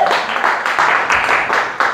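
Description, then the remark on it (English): A crowd claps together to welcome guests, in steady, dense applause that holds at a fairly loud level for the full two seconds. The many overlapping hand claps merge into a continuous crackling wash. “Give them a. Clap, make them feel welcome.”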